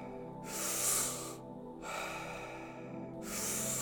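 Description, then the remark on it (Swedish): Deep, rhythmic breathing during a guided breathing exercise, with long airy inhales and exhales alternating steadily without pause, each breath loud and broad with a rushing, hissy texture and no talking. “Djupa andetag. In med lugnet, ut med stressen.”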